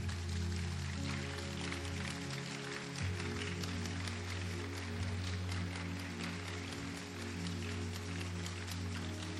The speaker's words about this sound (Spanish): Deles aplauso al Señor.